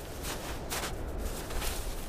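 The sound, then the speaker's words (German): Footsteps crunch down rough steps cut into the ice at the entrance of a glacier cave below a ski slope in the Tux Alps, a handful of uneven, scraping treads on slippery ice, heard alone against a steady hollow background hiss. “Am Anfang sind ein paar grobe Stufen ins Eis gehauen. Huch, da ist man schon mal froh, wenn man gute Schuhe anhat.”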